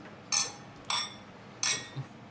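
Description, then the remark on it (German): Three bright glass clinks ring out one after another, spaced under a second apart, each a short chime with a brief shimmering decay, like glasses touching in a toast. “Prost erstmal. Ja, Prost.”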